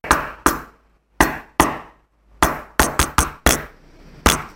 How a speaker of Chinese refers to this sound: 他一敲门，果断爷爷开了门。